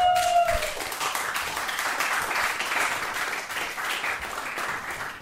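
A crowd breaks into steady applause for a woman, dense overlapping claps at an even, moderately loud level for several seconds, with a brief tonal whistle-like sound at the very start.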